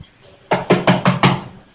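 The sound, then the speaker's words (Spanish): Five quick, evenly spaced knocks on a door, firm, with quiet before and after and no voices. “Escucho la puerta, que sí, Señor.”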